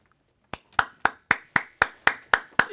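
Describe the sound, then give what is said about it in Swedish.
A brief burst of applause for goalkeeper Iker Casillas: about nine sharp, evenly spaced hand claps in a steady, slow rhythm, fairly loud and alone, with no voices. “Jajamensan, där han fick en applåd.”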